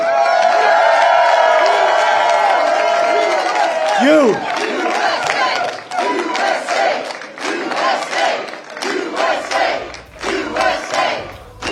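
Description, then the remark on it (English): A large crowd at CPAC, the War Room audience, lets out a loud, sustained cheer with shouts and whoops for several seconds, then it fades into scattered crowd noise as people talk over it. “Since CPAC's about to kick us out, let's give one more big cheer for the War Room Posse.”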